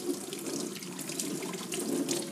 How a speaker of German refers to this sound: Ich wasche jetzt meine Hände, wir müssen nämlich kurz zu, unseren, äh, zu unserem Geschnetzelten schauen.